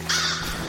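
A single harsh crow caw rings out, short and fairly loud, over a steady low background hum with no voices.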